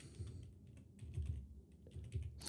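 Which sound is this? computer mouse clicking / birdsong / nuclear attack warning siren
computer mouse clicking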